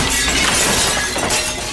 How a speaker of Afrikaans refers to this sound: Hy val in die kas en al die borde breek.